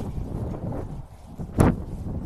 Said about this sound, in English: You can hear the Midwest wind.